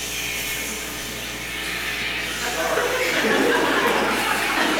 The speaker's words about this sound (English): I mean, I, I mean, I'm for some horsepower back there. That sounded like a truck pull. I mean, I'm for sound effects to, to help with the sermon.